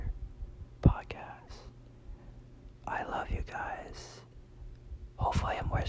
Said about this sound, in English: Shh, guys, guys, guys, guys. This is the ASMR whisper.